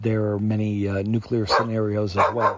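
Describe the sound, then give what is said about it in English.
A pet dog barks in short bursts, tangled up with a man's steady talking, the barks cutting in sharply over his voice near the end. “That's my dog telling me I gotta go.”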